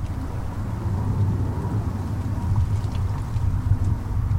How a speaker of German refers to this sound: Startet gerade ein Flugzeug.